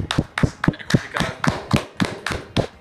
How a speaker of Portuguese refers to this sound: Uma salva de palmas pra tartaruga punk que nasceu em Itanhaém. Puta, palma é foda, hein?